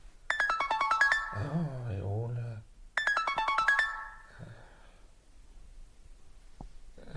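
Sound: telephone ringtone ringing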